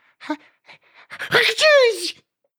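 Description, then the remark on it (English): A single loud sneeze: a few faint sharp breaths, then a forceful noisy burst that turns into a voiced cry falling in pitch and ending abruptly. No other talking is heard. “Sorry, I just sneezed there.”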